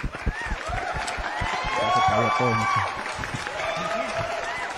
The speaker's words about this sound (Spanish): Pero bueno, antes de, de, iniciar, quiero que le demos la bienvenida, hoy sí, con aplausos, por favor,